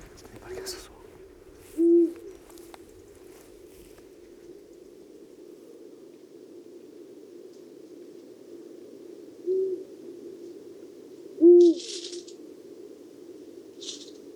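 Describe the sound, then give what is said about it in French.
A Eurasian eagle-owl, Europe's largest nocturnal raptor, gives deep, resonant hoots at intervals before full nightfall, a few spaced calls carrying over a steady low background hum, with faint rustling noises now and then. “C'est le plus grand euh, rapace euh, nocturne d'Europe.”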